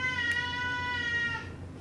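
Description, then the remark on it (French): A single drawn-out cat meow, clear, holding a steady tone for over a second before trailing off, with no talking over it. “Bon, en fait, si le chat va vouloir remonter, j'arrive, je remonte le chat.”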